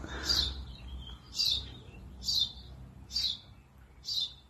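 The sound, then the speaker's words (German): Birds chirp in a steady series of five short, high bursts about a second apart, heard fairly clearly over a low background rumble. “Vögel, die zwitschern”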